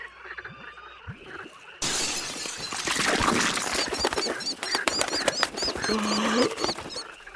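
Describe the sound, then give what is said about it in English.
After a quiet start, a sudden cracking burst as a falcon named Chivalry breaks out of the big shell of a screaming clam it had devoured from within, followed by sustained wing flapping and rustling, with repeated shrill, high chirping calls over it. “Oh, is that glutton still in that big shell? Chivalry, come on out of there!”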